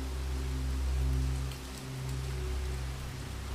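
Steady rain falls on a stormy night at Lookout Manor in a continuous hiss of scattered drops, with a low droning hum running underneath throughout. No one speaks.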